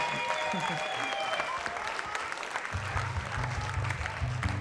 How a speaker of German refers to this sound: Einen riesengroßen fetten Applaus